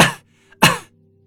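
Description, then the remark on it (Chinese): A man coughs twice, two loud, harsh bursts separated by a short pause, with a faint breathy sound just before the second cough. “何洛咳嗽了两声，终于缓过来了。”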